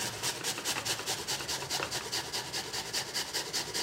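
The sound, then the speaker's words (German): Food being rubbed against a kitchen grater in a steady run of quick, scratchy rasping strokes, about three per second, moderately loud with no one talking. “Bei so einer Reibe habe ich immer so ein bisschen Angst, dass die Finger da gleich mit draufgehen.”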